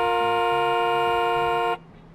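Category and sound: vehicle, car horn honking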